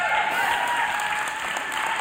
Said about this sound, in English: A little more, a step up. Come on, just one step more, shouting and clapping and declaring. We're going another level.